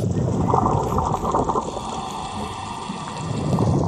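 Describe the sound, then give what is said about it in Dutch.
A dense underwater soundscape of a coral reef, full of continuous crackling and popping with low muffled rumbling beneath, from parrotfish scraping algae off stony corals and shrimp shooting into their burrows, steady and immersive throughout with no voices. “En zo kunnen zeedieren het geluid van een koraalrif handig gebruiken om er de weg naartoe te vinden.”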